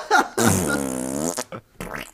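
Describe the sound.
A voice imitates the fart of a character who drinks a glass of milk and bends over: a short burst, then one long, buzzy, drawn-out raspberry lasting about a second, followed by a couple of brief breathy sputters, loud.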